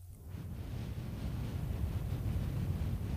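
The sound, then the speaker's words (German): A steady breathy rush blown into a microphone, imitating static hiss, with low rumbling buffeting underneath; it swells slightly after the first moment and holds for about three seconds, no talking. “Wenn du im Auto sitzt, wird es vermutlich untergegangen sein, aber ich habe jetzt so mit meinem, äh, mit dem Atem im Mikrofon ein leichtes Rauschen simuliert”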